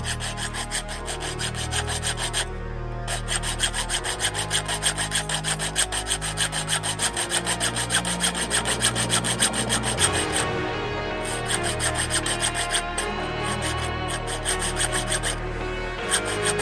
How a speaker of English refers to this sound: In his hand, a saw. Don't move, he barked. He began to saw the chain of the handcuffs off the drain.